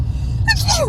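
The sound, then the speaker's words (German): A single sharp sneeze bursts out, a quick breathy intake followed by a forceful, noisy expulsion that trails off with a falling vocal tone. “Gesundheit!”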